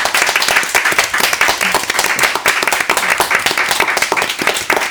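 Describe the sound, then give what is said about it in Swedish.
An audience at a panel conversation at Drama Queen applauds steadily at the end, many hands clapping in a dense, continuous patter that stays loud for the whole stretch, with no voices rising above it. “Och tack publiken. En applåd till alla.”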